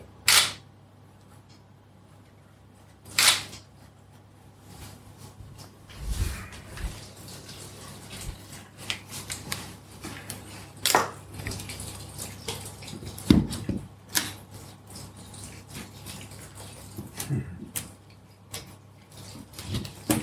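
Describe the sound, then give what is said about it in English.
Water pours and splashes for several seconds, moderately loud, with scattered clicks and clatter of handling. A couple of sharp snaps come before it. No one speaks. “so I start with the water”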